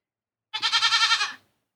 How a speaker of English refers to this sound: That's cute. I can hear the goat